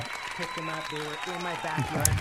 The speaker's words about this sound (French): Donc voilà, j'applaudis, parce que je, je ne sais pas si j'arriverai un jour à ce niveau de,